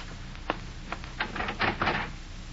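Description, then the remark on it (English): A few sharp metallic clicks, like a key working a lock, followed by a rattling clatter as a door is pulled open; no voices are heard. “Come on, open up, will you?”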